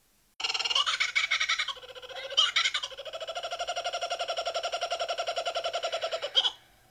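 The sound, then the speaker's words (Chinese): A laughing kookaburra calls from afar on a still night: a loud, rolling cackle of rapid, rhythmic hoots and chuckles that builds and runs for about six seconds, then breaks off. The call stands alone with no talking. “恶魔一般傻笑的“笑翠鸟””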